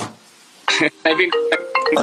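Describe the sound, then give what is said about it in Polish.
A phone rings with a bright electronic ringtone: a string of short, melodic beeping bursts that start after a brief quiet moment and repeat at a fairly steady, moderately loud level. “Poczekaj, poczekaj, a czemu mi tu kurczę dzwoni?”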